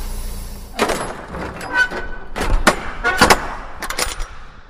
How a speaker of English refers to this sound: Now, got to get this trailer out of the dock for us the way and get the doors closed. We are ready to roll.